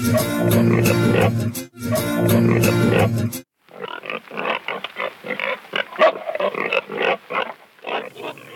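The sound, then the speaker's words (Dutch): Recorded pig sounds from the Abbey Road studio tape library: two long, loud pig squeals with harsh rasping tones, followed by a rapid string of grunts and snorts of varying loudness, with no one speaking. “En eh, hij zou wel even gaan zoeken naar varkensgeluiden.”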